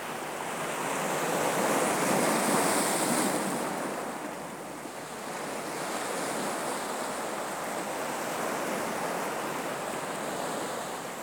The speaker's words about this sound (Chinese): 它的强度。它的韵律，每一声海浪的声音，仿佛一样，它们又不同。